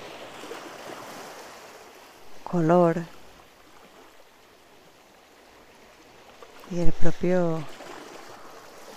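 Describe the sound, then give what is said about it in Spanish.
A steady, soft wash of ocean surf rolling in the background, with two short bursts of a person speaking over it. “Como este vaivén, como este conjunto, como esta unión de gotas que hacen que cada ola tenga su propia intensidad, fuerza, sonido,”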